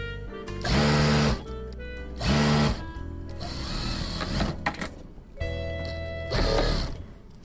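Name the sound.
sewing machine running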